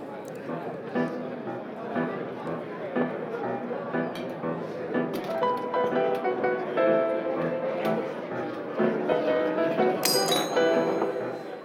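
A pianist plays a gentle melody in a fine restaurant, reworking songs in new arrangements, beneath the murmur of diners, with glasses and cutlery clinking throughout and a bright chime of glass near the end.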